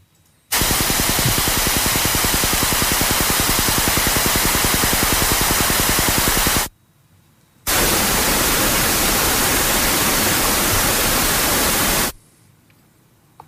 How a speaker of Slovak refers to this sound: Tieto, tá, ten jeden multiplex, ktorý budeme počuť, prenáša asi 4 až 5 televíznych staníc vo vysokom rozlišení.